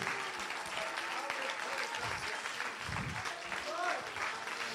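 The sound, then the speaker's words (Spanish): Steady, dense applause from a church audience clapping loudly in praise of Jesus, a continuous crackle of many hands clapping at full strength, with faint voices and shouts mixed in underneath. “Sigue aplaudiendo fuerte, fuerte, fuerte a Jesús.”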